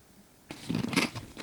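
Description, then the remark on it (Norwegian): Crinkling of a snack bag and crisp crunching as potato chips are grabbed and eaten, a burst of dry rustles lasting about a second after a quiet start. “Unnskyld, jeg, jeg tok potetgull på et veldig rart tidspunkt her nå.”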